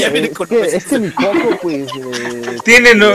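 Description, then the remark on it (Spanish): A human voice imitates a rooster crowing, with warbling, rising calls and a long held note, loud, followed by a brief burst of laughter-like vocalizing. “Tiene creo que el horario de verano del de 2018, pinche gallo.”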